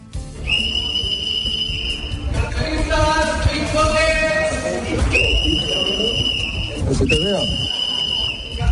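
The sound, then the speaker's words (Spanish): Loud, shrill whistle blasts repeat several times over a busy street in central Madrid as a citizen anti-pickpocket patrol warns tourists of two pickpockets, with raised voices calling out amid the crowd noise between and beneath the whistles. “Pues es la patrulla ciudadana de anticarteristas de Madrid en pleno centro, avisando a los turistas de la presencia de dos amigas de lo ajeno, vamos, de dos ladronas que aprovechan cualquier descuido de sus víctimas”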